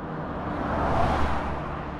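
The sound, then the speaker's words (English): A car drives past and slows down, with a steady engine and road rumble that swells slightly in the middle, with no voices. “A teenager driving past spotted the women and slowed down.”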